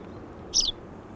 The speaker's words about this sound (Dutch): Als we dit horen, maar iets explosiever, dan, is het een... dan hebben we een duimpieper. Dus ik zal het even laten horen. Dit, je hoorde net die huis, huismus. Duimpieper klinkt zo.